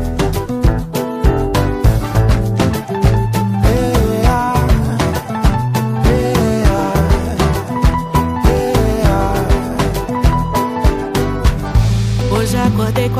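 Upbeat pop song playing loudly and steadily, with a punchy rhythmic beat, bass and layered instruments filling the whole clip, no speaking over it.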